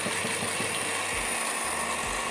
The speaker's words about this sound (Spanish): Vamos a ver si la licuadora lo toma. Sensacional.